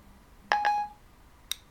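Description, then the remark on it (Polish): A voice assistant's (Siri) button-press tone while setting up a calendar meeting by voice: two quick, bright electronic notes rising in succession, followed about a second later by a short sharp click, with no one speaking. “Posłuchaj. Przycisk.”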